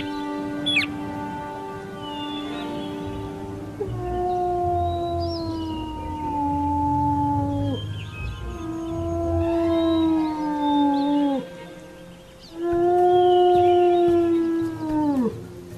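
A jackal howls three times in a row, each call a long, sustained wail that slides downward at the end, fairly loud, with short pauses between and no talking.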